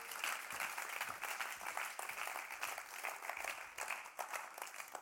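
Sustained audience applause, a dense wash of many hands clapping steadily for the full stretch with no pauses and no voices rising above it.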